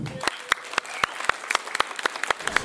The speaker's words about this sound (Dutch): En dan wil ik even een daverend applaus voor deze stripmakers.